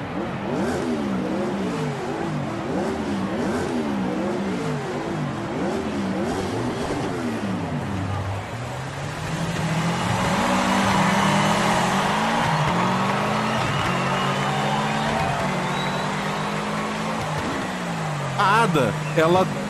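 Race car engines rev up and down in a steady, rhythmic pattern at a race start, then roar together into a loud, sustained acceleration as the cars pull away, prominent throughout.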